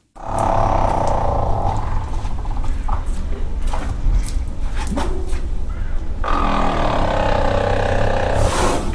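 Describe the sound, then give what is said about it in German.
A female elephant at Tiergarten Schönbrunn zoo makes a loud, continuous rattling rumble that sounds like a motorcycle engine revving, sputtering on for several seconds with no talking. “Das ist die einzige Elefantendame im Tiergarten Schönbrunn, die so ein Knattern macht.”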